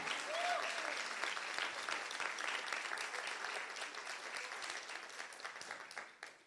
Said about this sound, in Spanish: Vamos, dale un aplauso si lo crees. Come on, believe God.